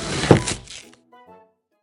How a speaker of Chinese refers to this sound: 便拿出了菜刀，将桃子切了开来。